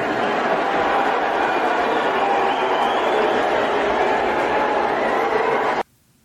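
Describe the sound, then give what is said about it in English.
A large crowd roars with a mix of cheers and boos at Elon Musk in front of Dave Chappelle, a loud, dense wall of voices that holds steady for several seconds before cutting off abruptly. “And some people cheered, but a lot of people jeered. A lot of people booed.”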